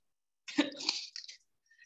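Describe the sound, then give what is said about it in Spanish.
A brief coughing fit: two or three harsh, raspy coughs in quick succession, fairly loud, followed by a faint breath, with no talking. “Ay, ah, que le ha dado un ataque de tos.”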